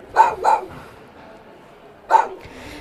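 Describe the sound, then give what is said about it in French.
A small dog barks: two quick yaps in a row, a pause, then one more sharp yap, with no talking. “Qui par magie se transforma en gentil petit chien.”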